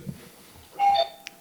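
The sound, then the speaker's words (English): A single, really loud electronic doorbell chime rings out clearly, a bright sustained tone lasting under a second with harmonics, followed by a brief faint click, against a quiet background. “Um, sorry, that's my doorbell.”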